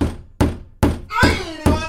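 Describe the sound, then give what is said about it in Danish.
Five heavy, dull knocks from a dead-blow hammer land in a steady, loud rhythm, with a brief tonal ring or voice-like sound between the middle strikes. “dunhammer, som lyder sådan her.”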